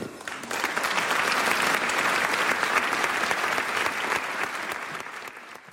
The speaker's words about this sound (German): Lieber hochwürdigster Herr Weihbischof, der Applaus spricht für sich und auch der Blick in die Runde zeigte, es drohte keiner einzuschlafen.